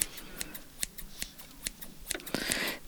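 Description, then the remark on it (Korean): Crisp scissor snips trimming body hair before waxing, on a person lying on a bed, in a quick, uneven rhythm: about eight sharp clicks over a few seconds with a soft rustle between them and no talking. “자 가위로 털부터 좀 정리하고 시작할게요.”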